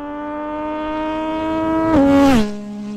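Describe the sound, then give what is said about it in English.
An engine drones at a steady, buzzy pitch that creeps slightly upward, then roars louder for a moment before the revs drop to a lower tone. No one speaks. “I think he's got a lot more revs to go.”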